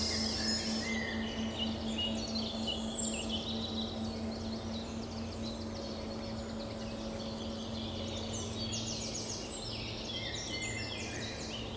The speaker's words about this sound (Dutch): Je hoort de vogels op de achtergrond.